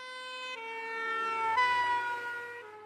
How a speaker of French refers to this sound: Une voiture de pompiers s'approche de vous et sa sirène semble de plus en plus aiguë. Puis la voiture vous dépasse, s'éloigne et la sirène vous semble de moins en moins aiguë, de plus en plus grave.